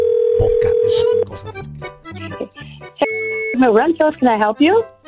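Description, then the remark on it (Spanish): A steady telephone dial tone hums alone for about a second as a call is placed to a construction machinery rental company, then talk begins and the tone briefly returns, with a voice speaking over it. “Tenemos el teléfono.”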